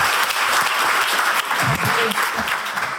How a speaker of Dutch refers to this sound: Heel goed, geef ze een warm applaus.